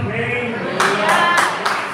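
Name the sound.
audience clapping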